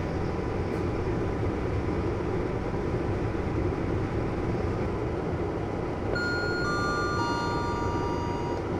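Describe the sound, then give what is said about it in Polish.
Steady, dense low rumble of a moving train heard from inside a carriage during a 2 hour 17 minute journey, continuous and unbroken, with faint high tonal whines from the wheels or motors appearing near the end. “Żeby znaleźć swoją ciszę, muszę przebić się przez 2 godziny 17 minut jednostajnego szumu.”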